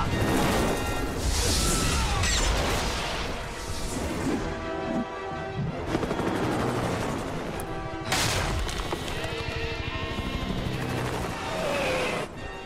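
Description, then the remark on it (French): Loud, dense action-scene chaos from a film with Harrison Ford in the helicopter: a helicopter roar layered with bursts of gunfire, crashes and booming impacts, continuous for the whole stretch, with no talking. “mais il y a Harrison Ford dans le dans l'hélico.”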